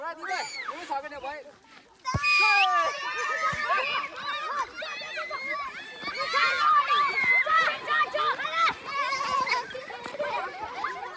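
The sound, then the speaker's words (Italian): About 50 children play Australian football with an oval ball outdoors in a remote mountain village in Myanmar, many young voices shouting and squealing nonstop as they run, chase and kick, with a sudden loud burst of cries early on. “Quasi 50 bambini corrono, inseguono e calciano la palla ovale.”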